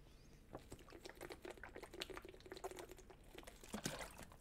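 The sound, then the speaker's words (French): Water pouring steadily into a glass for a few seconds to be drunk, a bubbling splash with small gurgles and clinks, and no one speaking. “Boire de l'eau.”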